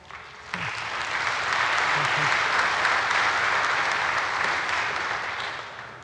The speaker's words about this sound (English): I'll tell her you clapped.